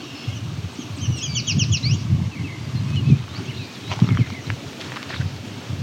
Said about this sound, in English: There's an American robin in the distance singing.